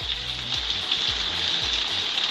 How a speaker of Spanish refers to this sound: Lloviendo. Está lloviendo. Creo que es uno de los sonidos más bonitos que se pueden sentir, en la lluvia.